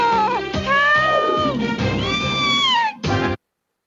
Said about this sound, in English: Are you, ah, are you sure that wasn't a uh, like a cartoon cat? Are you 100% positive? You know what? Uh, I just have the audio here, so I can neither confirm nor deny that that was a cat being thrown off a table.